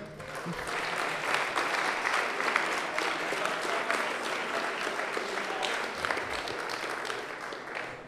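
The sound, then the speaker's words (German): An audience in a wine cellar applauds steadily for a cyclist called up to the front, a dense wash of many hands clapping at an even loudness throughout, with no clear voices on top. “komm mal kurz vor, einmal Applaus”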